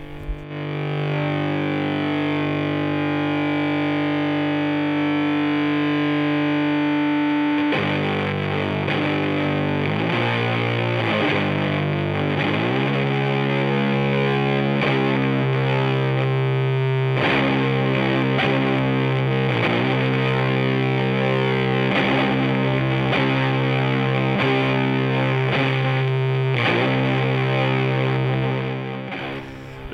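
Loud, heavily distorted doom and stoner metal: a sustained droning guitar chord rings out first, then slow, crushing riffs churn on steadily with no voices.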